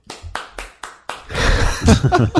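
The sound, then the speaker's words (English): A golf clap: about five light, evenly spaced hand claps at a slow, polite pace, then a dense wash of laughter and voices takes over. “Golf clap.”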